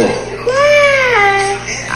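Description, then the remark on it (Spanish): A young child's voice imitates a cat, giving one drawn-out, rising-and-falling meow, fairly loud above a quiet background. “¿Cómo le hace el gato?”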